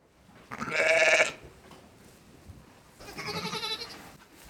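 Two loud, wavering ewe bleats, the first around a second long and the second slightly softer and quivering, separated by a quiet pause with faint background noise.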